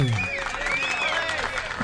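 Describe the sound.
A steady burst of studio applause welcoming a guest, the writer of the book É Maravilhoso Ser Mãe, to the table. The clapping is dense and even in loudness for about two seconds, with a voice or tonal sound running over it.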